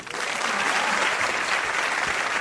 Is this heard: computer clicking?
no